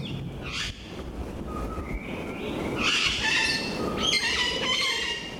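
Puerto Rican parrots calling: a string of harsh, raspy squawks and shrill screeches, several overlapping and fairly loud, over a steady noisy background with no talking.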